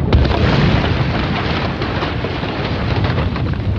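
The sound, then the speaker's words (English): A loud explosion roars for about four seconds, a dense, rumbling blast scattered with sharp crackles and bursts like flying debris and shrapnel. No voices are heard. “Duck your head before the shrapnel hits.”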